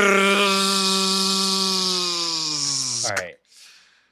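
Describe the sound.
A person practicing chainsaw sounds imitates a chainsaw with a loud, buzzing, growling voice held steadily for about three seconds, then cuts off abruptly, followed by a short breathy exhale.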